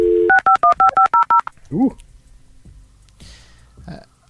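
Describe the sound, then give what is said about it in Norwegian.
A rapid series of about eight crisp telephone keypad tones, evenly spaced like someone dialing a number, followed by a brief warbling chirp and then quieter rustling noise, as the phone connects to the switchboard. “og som dere vet, så må jeg starte den opp før jeg kan Jeg må koble meg på sentralen.”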